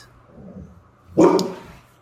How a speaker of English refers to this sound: They're just barking. They are not. They want to bark. They love to bark. Oh. Hush, hush. You don't have to bark at the neighbors. They're just pulling into their driveway.